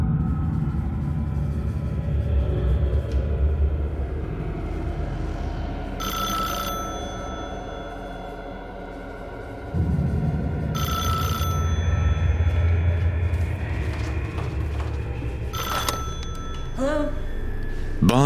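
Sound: telephone bell ringing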